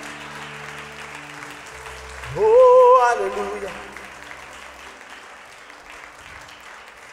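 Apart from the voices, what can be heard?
audience applauding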